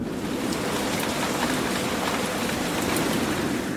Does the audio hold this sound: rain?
yes